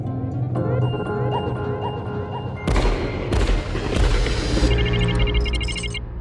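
Three loud, sharp gunshots crack out in quick succession, each with a brief ringing tail, over a steady droning musical background that continues throughout.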